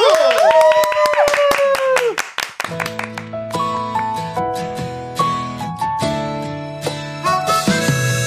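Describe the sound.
Audience clapping with cheering voices for about two seconds on a radio show, then fading as a gentle instrumental intro of sustained, melodic tones begins a live song performance.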